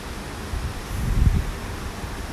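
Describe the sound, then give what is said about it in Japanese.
A waterfall in a gorge roars in a steady, full-bodied rush of water, with a brief low rumble of wind buffeting the microphone midway; no voices. Recorded in autumn among coloured autumn foliage. “本当この紅葉の色味をね楽しみながら滝の音を聞いて ものすごくリラックスしております”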